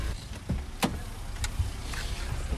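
Someone climbs into a car that is going to be parked: two sharp clicks and knocks, like a door handle and seat movement, over a steady low vehicle rumble, with no talking.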